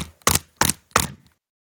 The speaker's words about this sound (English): That noise was me slamming my laptop with excitement.